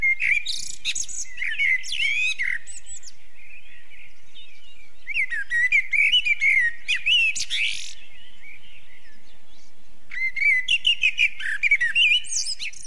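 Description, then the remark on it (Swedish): A common blackbird sings three rich, fluty warbling phrases separated by short pauses, each ending in higher twittering notes, clear with no other sounds around it. “Det är intressant med koltrastens sång också att eh, de har påtagliga dialekter.”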